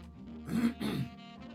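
A radio host on a Monday morning radio show clears their throat with two quick, gravelly rasps back to back, moderately loud, then falls quiet. Nobody speaks.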